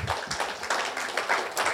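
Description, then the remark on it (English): A church audience applauding a summer series on joy, with a dense, steady wash of many hands clapping at once, fairly loud and unbroken throughout, and no voices standing out. “Come on, let's hear an applause.”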